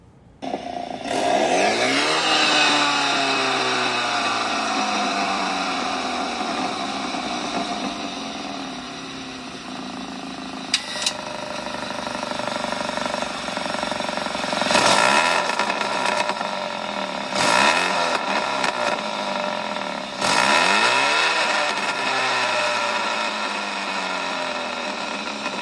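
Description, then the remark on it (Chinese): An engine revs repeatedly through a Remus aftermarket exhaust, from the Austrian brand Remus, with loud throttle blips and rising, falling harmonic sweeps separated by a steady, rumbling idle; no one speaks. “就我发现我刚才弄弄错，这个其实不是那个 e s m a n 的声音，它是另外一个品牌哦，叫做 Remus，嗯，好，那 R E M U S，然后它是一个奥地利品牌”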